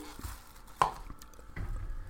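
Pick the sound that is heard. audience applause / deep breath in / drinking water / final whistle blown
drinking water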